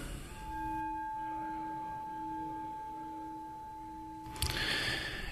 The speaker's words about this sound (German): Und dann äh, bringen wir erstmal unsere Aufmerksamkeit gleich zum Klang der Glocke.